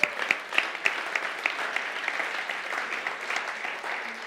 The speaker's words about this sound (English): Karamia, stand up. I want you to give this woman a round of applause.